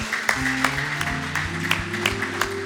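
A church audience, standing and singing a praise song, claps together for the Lord in a steady rhythm, the sharp hand claps landing roughly twice a second over sustained, droning keyboard chords.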